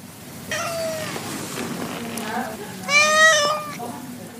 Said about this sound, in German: Sind sie dagegen gestresst, etwa beim Tierarzt, klingt das Miauen traurig, fast so, als ob sie jammern würden.